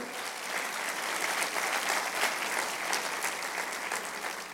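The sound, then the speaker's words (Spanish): A crowd applauds steadily for several seconds for the Lord, a dense, even wash of many hands clapping with no pauses and no speech over it. “Habrá alguien hoy que le pueda dar un aplauso al Señor y creer eso.”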